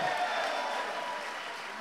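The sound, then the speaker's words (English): An audience cheers and applauds for two members of the Cauldron, a dense, steady wash of clapping with a few raised voices at the start, holding for about two seconds and easing off slightly toward the end. “Cheer for them.”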